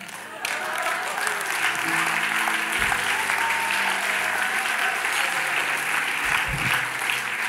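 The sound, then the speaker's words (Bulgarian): An audience at a sermon bursts into sustained applause after a brief quiet opening, a dense, steady wash of clapping that holds at an even loudness to the end, with faint voices mixed in underneath. “Човекът до теб, който не пляска, разказах живота му сега.”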